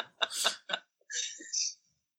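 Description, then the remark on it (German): A woman coughs: two or three sharp, rough bursts in quick succession, followed by a longer raspy, breathy wheeze as she catches her breath. “Solange sie sich aushustet, können wir ja nochmal kurz äh, zurückschwingen zu äh,”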